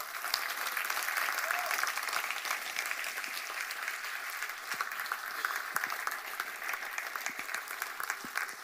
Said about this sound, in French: Est-ce qu'on peut applaudir Jésus